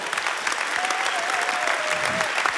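An audience in a church claps steadily for a pastor from Örebro, a dense wash of many overlapping hand claps sustained throughout, with a faint whistle-like tone briefly rising above the applause.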